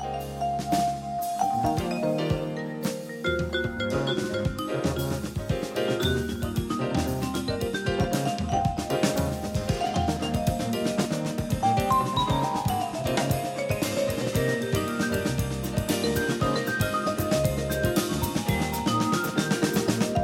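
A vibraphone solo rings out over a full, busy band backing, with quick melodic runs and steady rhythm, loud and continuous throughout, with no voices.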